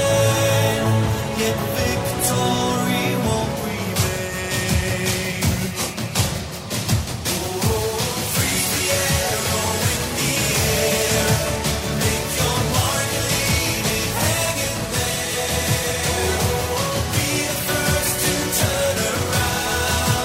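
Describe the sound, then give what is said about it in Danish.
A full-band pop song about Vikings, a 2018 song contest entry performed in Lisbon, plays loud and steady throughout, with driving drums, dense layered instruments and bright high percussion, no speech over it. “Jeg synes lige, vi skal lytte til en lille bid af den her.”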